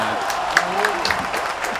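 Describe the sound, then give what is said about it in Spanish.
A crowd claps loudly and steadily for a producer being introduced, a dense burst of applause with a few voices calling out over it, continuing without pause. “Fuertes aplausos.”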